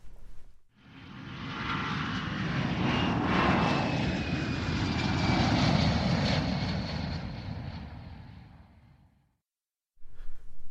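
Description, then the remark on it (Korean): An airplane flying to Brisbane roars past, a broad rumbling engine drone with a hissing high whine that swells to a peak mid-way, then fades before cutting off into silence; no voices. “우리는 곧장 브리즈번으로 날아갔다.”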